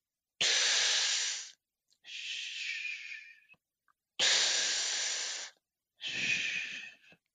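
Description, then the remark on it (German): A person vocally imitates a normal vesicular breath sound as heard through a stethoscope: two slow cycles of soft, airy inhalation followed by a gentler exhalation, breathy with no speech. “Ein normales Atemgeräusch klingt so.”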